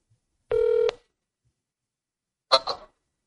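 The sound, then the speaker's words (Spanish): A single steady electronic telephone keypad beep lasting about half a second as a phone call is dialed, followed after a pause by a short, scratchy burst of noise, fairly loud, with no talking. “Con lo que le marcas tú.”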